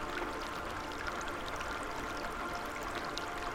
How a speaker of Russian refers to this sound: Профи включает теплую приятную воду.